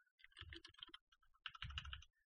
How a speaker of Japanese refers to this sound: 今、あの、ね、ちょっと普段と違うキーボードポジションなんで、青島ってあのタイプしようとしたら、あいあいうわってなっちゃいました。ちょっとね、あの、ポジション変えるとすぐこんな感じになりますね。